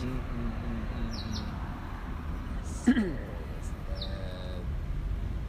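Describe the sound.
Sparrow chirps come in a few short bursts over a steady low rumble of passing car traffic, with a brief louder sound midway and a murmur of voices.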